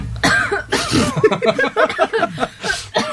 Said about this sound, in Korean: 잠깐 나, 나가줄래요? 보컬이, 제 기침하니까 시작할 수가 없죠.